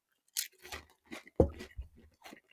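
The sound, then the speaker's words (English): Crunching of a Pringles crisp, a series of sharp, dry crackling bites with one especially loud snap in the middle, followed by softer chewing crunches. “the only one I haven't actually crunched is the actual Pringle.”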